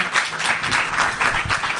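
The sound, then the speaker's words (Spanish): Loud, steady applause from an audience, a dense wash of many hands clapping continuously with no pauses and no voices standing out. “fuerte aplauso.”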